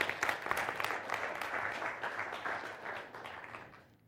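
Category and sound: crowd, audience round of applause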